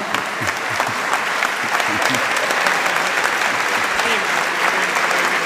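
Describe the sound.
A crowd applauds steadily for several seconds, a dense, even patter of many hands clapping at once, fairly loud, with faint voices mixed in beneath.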